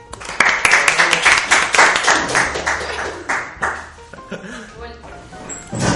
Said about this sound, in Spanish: Mira, por favor, denos un aplauso también.